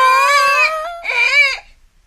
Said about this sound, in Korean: 근데 아, 아기가 울다가 토까지 하니까 너무 무서웠어.